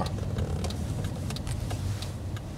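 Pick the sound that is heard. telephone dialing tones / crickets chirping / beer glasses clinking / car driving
car driving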